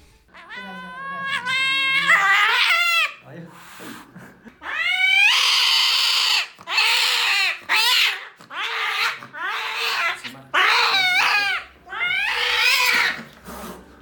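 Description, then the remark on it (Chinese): A stressed pet cat, Juzi, yowls loudly at an animal hospital during its neutering visit, about seven long, wavering cries with rising and falling pitch, separated by short pauses, with no talking. “所以从刚才的视频里，你们也能看得出啊，橘子的应激反应比普通的猫咪，或者说比戈登这种天使小猫咪都要大得多。”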